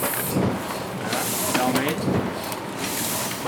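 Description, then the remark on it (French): A letterpress printing press runs, its rollers inking the type as a sheet passes over it to be printed, giving a steady mechanical whir and hiss with occasional soft knocks and clacks of its moving parts. “Voilà le bruit de la machine.”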